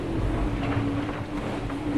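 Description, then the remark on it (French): A boat's engine drones loudly and steadily as the boat moves at 18 knots through a fairly rough sea, a deep continuous rumble with a humming tone on top and faint washing noise, no voices over it. “Voilà la petite mission pendant que le bateau il avance à 18 nœuds euh, dans une mer assez formée.”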